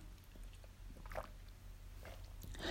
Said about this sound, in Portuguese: Só um minutinho, deixa eu beber água.